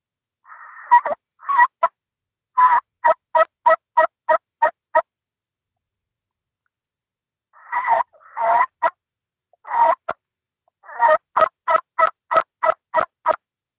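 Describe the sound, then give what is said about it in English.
Two runs of turkey yelps made on a turkey call, each a quick, evenly spaced series of loud, raspy notes, separated by a few seconds of silence, with no talking. “purr and then just a few clucks, and uh, and then I'll usually go into some some yelping.”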